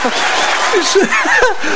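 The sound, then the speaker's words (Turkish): A burst of crowd applause: dense, steady clapping for about two seconds, with scattered voices, cheers and a little laughter rising over it. “Alkışları gönderdim sana.”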